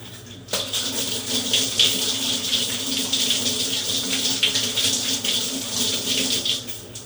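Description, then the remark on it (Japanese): A faucet turns on and water runs steadily into a sink, a continuous hissing splash with small fluctuations as hands move through the stream while a person rinses their face after removing makeup with Biore makeup remover, lasting throughout. “顔流します冷たくない”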